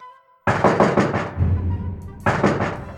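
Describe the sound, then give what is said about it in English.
Firm knocking on a wooden door: a quick run of about five raps, a brief pause with a low hollow resonance, then a few more knocks. “But then Ruth Nelson heard a knock at the door.”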